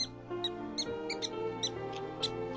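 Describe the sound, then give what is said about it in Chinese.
A mouse squeaks repeatedly in short, high-pitched chirps, about seven or eight in quick irregular succession, over a soft scurrying patter, out in broad daylight, with no talking. “哦，什么声音？好像是老鼠。”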